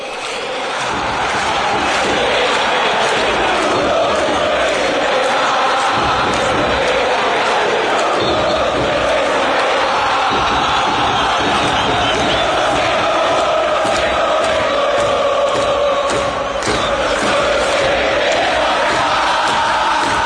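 A large crowd of Independiente football supporters chanting their fans' song together in a loud, sustained roar, voices blending into a rhythmic, continuous song with shouts and whoops rising above it throughout.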